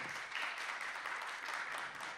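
Audience applause for the musicians at a live radio programme in the Sala Julián Carrillo at Radio UNAM 96.1, a steady, dense wash of many hands clapping at once, holding an even level throughout with no voices standing out.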